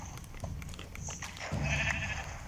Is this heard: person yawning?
no